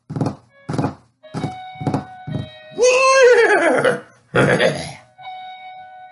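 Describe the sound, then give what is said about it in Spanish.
A run of about five heavy, evenly spaced hoofbeats of a galloping horse thuds, coming nearer, followed by a loud, shrill horse whinny and a second shorter neigh, with no talking. “A medida que corría sentía como el galopar de aquel caballo se oía más y más cerca.”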